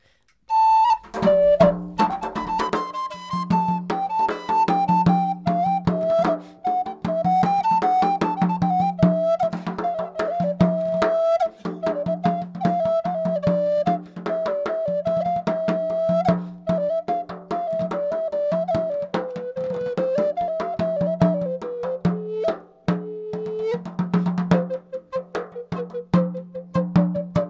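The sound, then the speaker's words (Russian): An improvised instrumental piece in a 14th-century Italian style, played in a studio: a wandering, whistle-like melody meanders over a steady low drone, with busy percussive taps from a square tambourine throughout. It plays continuously at a fairly loud level, with no voices. “Ля музик ин студио.”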